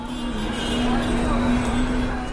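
Dense, gridlocked city street traffic outside narrow alleys fills the scene with a constant engine rumble, a steady droning tone and the blaring of countless car horns, with faint voices mixed into the busy urban din throughout.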